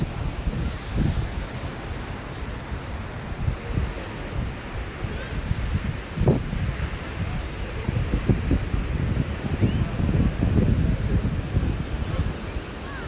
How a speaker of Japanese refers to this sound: 波の音と聞こえてますかねさっきはかなり波の近くにいたのでうるさかったんですけどもちょっと今日風強いですね